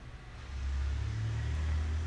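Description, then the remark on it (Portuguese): Motorcycles rumble past outside, a low droning roar that swells after the first half second and holds steady and fairly loud, with no voices. “Ixi, mano, mas passar uma pá de moto aqui, Virou o podcast da moto.”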